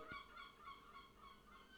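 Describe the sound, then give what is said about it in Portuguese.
Seagulls calling outside near the beach in Matosinhos, a steady run of harsh, nasal cries overlapping one another, with no voices present. “Não é fixe viver ao pé da praia? Então não é? Dás gaivotas lá fora.”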